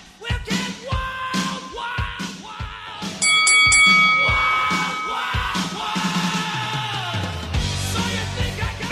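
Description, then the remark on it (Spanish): An old rock song plays with heavy, steady drum hits and loud sustained guitar chords, a bright high-pitched accent near the middle, and a descending bass line toward the end. No one talks. “Escuchamos una rola viejita.”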